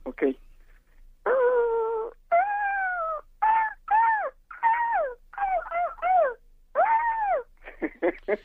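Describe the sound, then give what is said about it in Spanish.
A contestant in an imitation contest imitates an ostrich call with a loud string of strained, whining wails and yelps, about a dozen rising-and-falling cries in quick succession, sounding almost like a hurt dog. “¿Te dije imita avestruz o te dije imita perro atropellado?”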